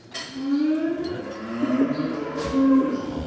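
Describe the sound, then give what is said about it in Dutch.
Several cows waiting to be fed moo in overlapping, drawn-out calls, loud, with a low rumbling tone and some shuffling noise in the background; no one speaks. “ging de koeien voeren”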